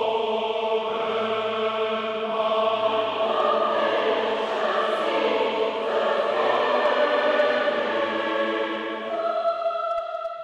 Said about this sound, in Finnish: Kuoro harjoitteli aikaisemmin keväällä Helsingissä Mikael Agrikolan kirkossa. Kuunnellaan ihan pieni pätkä siitä, että miltä se kuulosti. Tämä on siis kameran mikrofonilla taltioitua materiaalia, ei mitään virallista levytystä. Näin se soi.